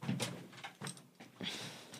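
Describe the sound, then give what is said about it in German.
A padded recording-studio door is pushed shut, muffled by its padding, with several soft thuds and rustling bursts rather than a sharp slam, moderately quiet. “Ich gehe jetzt überraschend ja. raus und versuche die Tür zu knallen.”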